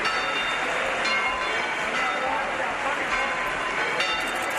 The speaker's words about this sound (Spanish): Estás escuchando el volteo de campanas que marcan la salida de la Virgen de las Angustias en Granada, que es la protagonista de nuestra próxima historia.